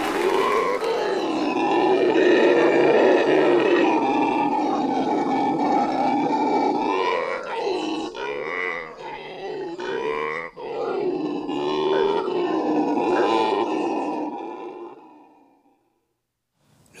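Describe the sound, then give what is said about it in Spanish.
Howler monkeys roar in a loud, sustained chorus of deep, throaty howls that surge and overlap, briefly breaking into choppier grunts midway before swelling again and fading out. No one speaks. “nuestros antiguos cuentan que cuando el monte se calla, cuando los monos aulladores dejan de cantar, algo malo está por suceder.”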